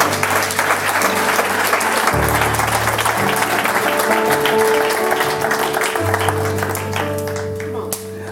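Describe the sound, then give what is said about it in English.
A church audience applauds steadily for several seconds, dense and fairly loud, while sustained organ-like chords shift underneath; the clapping thins slightly toward the end. “Am I hearing any hand claps?”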